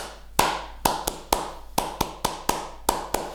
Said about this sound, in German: Äh, wenn, bevor wir anfangen mit unserem Podcast, klatschen wir ja immer. Ne? Mhm. Das hat eigentlich technische Gründe sozusagen